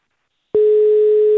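A telephone ringing tone sounds as a call is placed to a man looking for a job: after a brief silence, one steady, clear beep-like tone starts and holds loudly to the end, with no voices.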